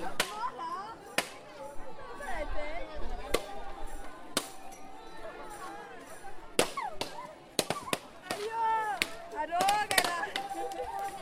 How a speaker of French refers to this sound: ils ont lavé la rue, ils ont cassé la coco